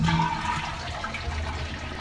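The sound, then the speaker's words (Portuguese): A toilet flushes, a steady loud rush of water with a low gurgling swirl that stays strong for the whole couple of seconds, with no voices over it. “Pode ser barulho de uma descarga.”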